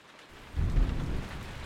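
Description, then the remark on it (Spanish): Steady rain hisses while a deep rumble of thunder swells in about halfway through, rolling low and heavy beneath the downpour with no voices present. “Es una noche lluviosa de 1582. El famoso arlequín Sanasa es despertado por un relámpago.”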